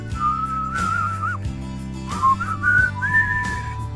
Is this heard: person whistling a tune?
yes